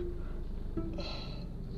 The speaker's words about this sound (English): Sorry, I'm yawning. This is what wine does to you. It makes you sleepy.